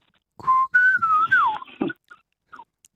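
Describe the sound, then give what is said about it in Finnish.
A person whistles a short, fluting melodic phrase imitating a Eurasian golden oriole's call, with a few sliding notes, clear, followed by faint small sounds. “Kyllähän siinä se tuttu kuhankeittäjän se”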